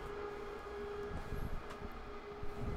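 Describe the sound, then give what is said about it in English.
A train rumbles by with steady low mechanical noise and a sustained tonal whine of brakes squealing as it slows to stop here, continuous throughout with no voices. “Sorry, I was prepared to be quiet for a second for the train, but I guess it's not too loud.”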